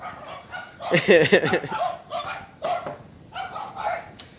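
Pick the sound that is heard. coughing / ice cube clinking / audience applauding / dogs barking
dogs barking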